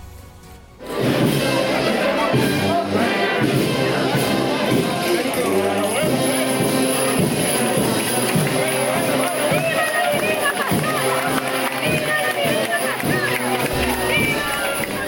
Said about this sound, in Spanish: Saludos, muy buenas tardes, bienvenidos a Radio Pasión en Jaén, sonidos de la pastora del pasado sábado por las calles del barrio de San Ildefonso.